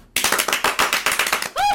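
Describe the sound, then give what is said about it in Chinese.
A quick burst of hand clapping from three people, rapid, loud and irregular for about a second and a half, cut off as a voice begins. “那我们在一开始，我们要先鼓掌。”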